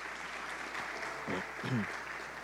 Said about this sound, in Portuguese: Aplaude o nome do Senhor aí no teu lugar.